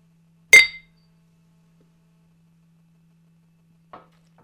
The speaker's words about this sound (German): Wir haben nicht einmal angestoßen mit unseren Zuhörern. Oh mein Gott. Müssen wir eigentlich nachholen. Komm, ja. dann machen wir das doch mal. Machen wir das doch mal. Und Prost.